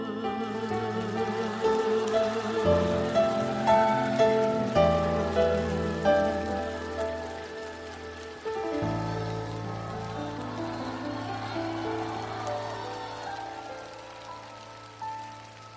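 Steady rain patters continuously over a slow, gentle instrumental melody of sustained tones, the rain forming a constant hiss beneath the music with no talking.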